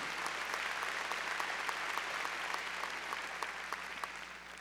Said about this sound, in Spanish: A ver, démosle palmas fuertes a nuestro Señor.